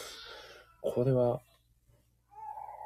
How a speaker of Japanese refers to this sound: もう完全なるギャン泣きですね。もう完全にこの音も入ってしまっているかもしれないですね。